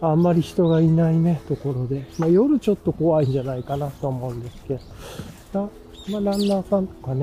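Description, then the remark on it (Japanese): Birds chirp faintly outdoors in the background along a quiet shaded tree-lined path, a few short high calls scattered beneath a man talking steadily in the foreground while riding a bicycle. “今鳥の声とかもね、聞こえてると思いますが、”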